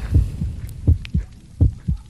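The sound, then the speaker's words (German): A muffled human heartbeat thumps in a steady lub-dub rhythm, roughly four double beats over two seconds, low and booming with a faint hum beneath and no voices. “Ist das tatsächlich Herzschlag oder ist das was anderes? Es ist tatsächlich Herzschlag.”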